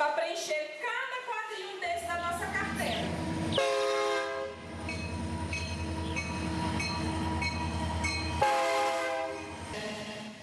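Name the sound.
train passing with horn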